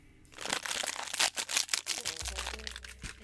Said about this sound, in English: It was a large Rice Krispie treat, and as he opened it, the sound was so loud others struggled to hear the judge's voice.